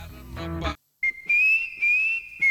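A clear whistled melody, steady and tonal, plays as part of a song with a backing arrangement, starting after a short burst of music and a brief silence.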